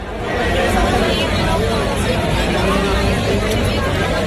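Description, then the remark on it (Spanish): A large crowd of students gathered in front of the Faculty of Economics and Business on Ramón y Cajal, Enramadilla campus, Seville, Spain, fills the air with loud, dense chatter and shouting during a police intervention, a steady roar of many overlapping voices with no single speaker standing out. “Este es el sonido de la intervención policial en esta zona de Sevilla, en el campus de la Enramadilla.”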